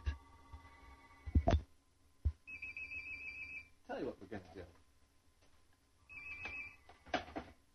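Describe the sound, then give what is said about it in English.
A telephone rings in two separate electronic bursts, a steady high-pitched trill that starts and stops, while a man keeps talking over it. “Phone isn't getting answered till I finish this story.”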